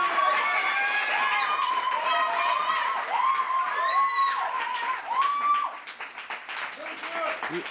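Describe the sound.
Audience applause, a dense, steady clatter of many hands with whoops and cheering voices riding over it, staying loud for several seconds before thinning out toward the end.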